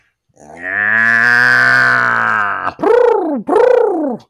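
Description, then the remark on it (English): A southern orange-eyed tree frog calls: one long, droning, growl-like note, then two shorter calls that rise and fall in pitch. Loud and clear, with no talking. “That's a southern orange-eyed tree frog.”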